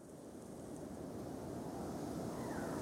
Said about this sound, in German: Der Sturm nimmt zu. Marco kniet am Boden, während der Wind den Sand um ihn aufpeitscht.